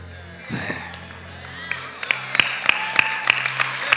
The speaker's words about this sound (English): Go ahead, clap hands for Jesus.